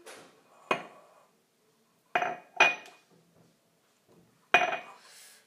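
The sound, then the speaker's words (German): Lime pieces from a jar drop into a bowl while making a caipirinha-style drink, with four sharp clinks at irregular intervals, each ringing briefly against the dish. Only faint handling noise between the drops; nobody speaks. “Wir füllen jetzt einfach die Limetten aus dem Glas, die acht Stücke, so eine Schüssel.”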